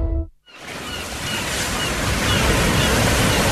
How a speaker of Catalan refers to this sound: Escolta, el sents? Sí, és el so del mar i al vell mig de l'Eixample.